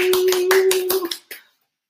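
A short burst of hand clapping, about seven sharp claps in an uneven rhythm over a steady low hum, ending with a last clap before silence.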